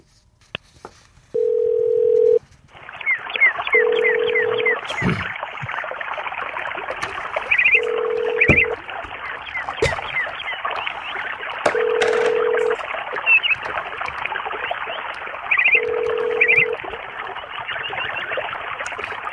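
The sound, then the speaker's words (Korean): An outgoing phone call from a radio show to a second listener rings repeatedly without being answered, a steady ringback tone pulsing at regular intervals over a bed of busy background music. “자, 두 번째 분 전화 드리겠습니다.”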